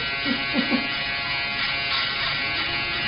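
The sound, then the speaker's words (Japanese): An American-made Wahl electric barber shaver buzzes steadily for the whole stretch, a dense continuous hum with a few brief rough bursts near the start as it cuts through hair. “はい、今シェーバーを入れてますこれがシェーバーですよ音が違う 削られてる”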